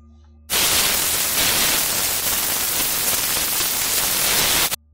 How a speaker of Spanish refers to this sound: El Bluetooth comienza a generar estática. Los quité rápidamente de mi oído.